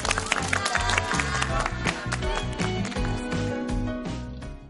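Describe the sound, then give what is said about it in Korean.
A large studio audience on a JTBC broadcast claps steadily and loudly throughout for a professor at the end of the final lecture of a four-part lecture series. A dense wash of applause layered over a rhythmic, bass-heavy music bed. “오늘 좋은 강의 해주신 교수님께 다시 한번 뜨거운 박수를 보내드리니다”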